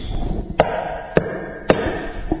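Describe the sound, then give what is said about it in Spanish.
Three sharp, evenly spaced knocks on a hard surface, a man imitating someone knocking at a door, distinct over a low background hum, followed by a softer fourth tap. “Él siempre toca la puerta, hermanito, así.”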